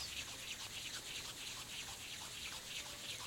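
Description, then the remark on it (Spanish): Hands rub together in a soft, steady, continuous hiss that imitates light rain, holding an even level for a few seconds with no voices. “Frotando sus manos.”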